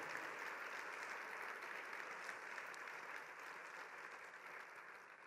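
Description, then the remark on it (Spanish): An audience gives a round of applause to the Lord for his love, a dense, even wash of clapping that holds at a fairly constant level for several seconds, easing slightly toward the end with no voices over it. “Vamos a darle un aplauso al Señor por su amor.”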